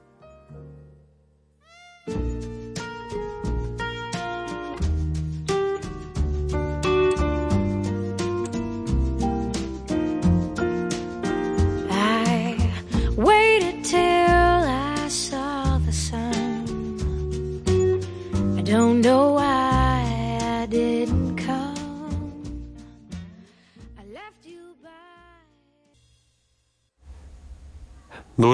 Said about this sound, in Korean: 노래 한 곡 듣고 이야기 계속 나눠보죠.